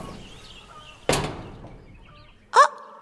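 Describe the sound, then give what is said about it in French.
Two short, separate bursts of hens clucking inside a poultry farm building in Morbihan, with a quiet pause between them: the first is a sharp, fading squawk, the second a brief, pitched cluck. “Ah, mes petites poulettes doivent être dans ce bâtiment. Je les entends jacter”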